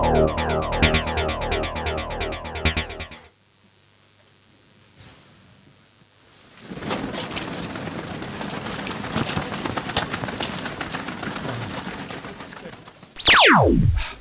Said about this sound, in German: Achso, ihr müsst, wenn, wenn der Bumper läuft, darf danach keiner mehr reden, weil dann spricht nur noch der Fuß.